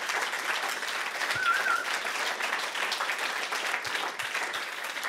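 A crowd applauds steadily for about five seconds, a dense, even wash of many hands clapping at a consistent loudness, with a brief faint whistle-like tone partway through, given in honor of a woman who leads two large areas.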